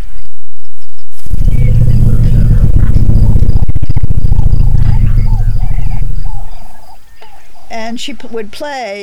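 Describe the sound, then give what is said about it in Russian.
An African elephant matriarch's contact call: a loud, deep, throbbing rumble held for about five seconds, steady, then fading into a few fainter, higher chirping sounds. “Вот ее контактный зоб.”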